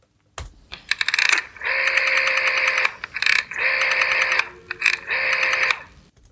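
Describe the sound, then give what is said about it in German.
A rotary telephone dial is turned and released three times, each pull of ratcheting clicks followed by a steady whirring return, with no voices. “Es ist ein, die Wählscheibe eines Telefons.”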